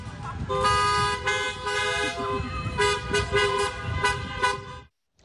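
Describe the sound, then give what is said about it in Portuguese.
Several car horns honk repeatedly over steady engine rumble in a car parade honoring a pregnant woman, with cars and motorbikes decorated with balloons, overlapping in bursts like a slow procession passing, loud and sustained before cutting off abruptly. “Muitas foram homenageadas com charreatas. Os amigos e familiares decoraram os carros e motos com bexigas, entregaram os presentes tudo pela janela.”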